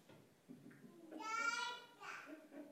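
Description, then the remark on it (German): A small child's voice pipes up in a short, high, sing-song vocalization, as if chiming in agreement, amid faint background murmurs. “Wenn ihr das jetzt nicht gehört habt über das Mikro, das hat mir gerade ein kleines Kind zugestimmt.”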